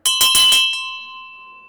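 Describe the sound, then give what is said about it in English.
A small metal bell is shaken a few times in quick succession, its bright clanging strikes giving way to a clear, sustained ringing tone that slowly fades. “She also rang some bells for me. Again, the only difference in the sound comes from the materials. If I ring this, you'll hear the sound.”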